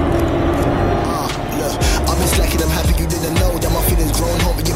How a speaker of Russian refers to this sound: Так, это мы вышли на берег, проплыв какое-то время по реке, что говорит о высокой проходимости вездехода.